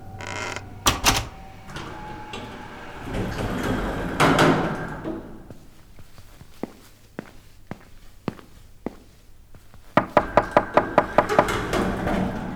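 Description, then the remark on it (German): An apartment door shuts with a sharp bang, followed by rattling and clicking as it is locked, a few scattered footstep-like taps, then a quick series of firm knocks on the door. No one speaks. “Versteck dich hinter der Tür. Ich schließe dann ab.”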